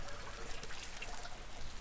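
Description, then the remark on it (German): Heavy rain pours down in a steady, dense hiss of water with a constant trickling texture, unbroken for the whole stretch and with no voices over it. “Es regnet in Strömen.”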